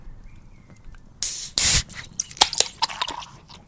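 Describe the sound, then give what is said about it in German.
A beer bottle is opened with a sharp hiss of escaping gas, followed by a short burst of crackling fizz as the bubbles settle. No one speaks. “Macht euch ein Bier auf, setzt euch zu uns, macht es euch gemütlich und quatscht mit uns über Gott und die Welt.”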